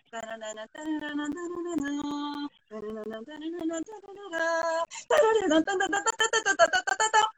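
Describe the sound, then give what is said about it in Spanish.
A lone voice clearly hums a dramatic orchestral opening, holding steady pitched notes in short phrases before breaking into a brighter, faster run of notes at the end. “Pues ya lo hacía Beethoven. ¡Chan, chan,”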